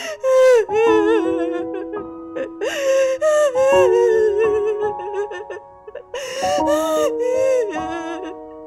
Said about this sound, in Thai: และถามมารดาของเขาว่า บ้านของเขาเองและบิดาของเขาเองอยู่ที่ไหน มารดาของเขาก็ได้แต่ร้องไห้คล่ำครวญ